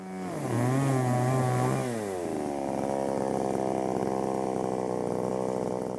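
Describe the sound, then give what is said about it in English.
A chainsaw engine revs up with a rising whine, then settles into a steady, loud snarling drone as it cuts through a 60-year-old tree in about 10 seconds, continuous with no voices. “I have sawn through 60 years in 10 seconds and left the logs weeping sap”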